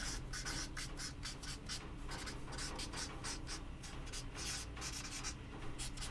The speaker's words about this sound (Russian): Давайте будем записывать, чтобы нам было проще и было просто, да, то есть чтобы начать сниматься.